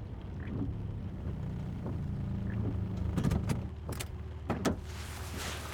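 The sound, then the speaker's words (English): A car's engine hums low and steady, then a few sharp clicks and clunks break through near the end as the vehicle comes to a halt. No one speaks. “Stop the car.”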